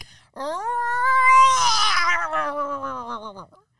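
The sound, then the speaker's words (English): A person voices a playful tiger roar, one long, drawn-out wail lasting about three seconds that swells and then slides downward, fairly loud with nothing else around it. “If you were a tiger, what sound would you make?”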